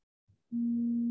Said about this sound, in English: Is that your phone or my phone? That's my phone. Sorry.